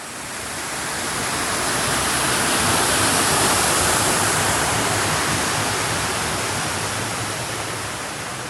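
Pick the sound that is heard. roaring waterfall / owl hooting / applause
roaring waterfall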